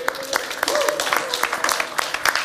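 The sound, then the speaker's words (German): An audience bursts into steady applause for the sound technician, many hands clapping in a dense, crackling wash that holds at an even, fairly loud level for the whole stretch, with a faint voice or whistle threaded through. “Applaus so. für Ton”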